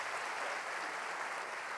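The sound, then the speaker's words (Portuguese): The audience of the Igreja do Recreio applauds steadily, a dense, even wash of many hands clapping that holds at a constant level for the whole moment, with no voices rising above it. “Vamos aplaudir a Igreja do Recreio.”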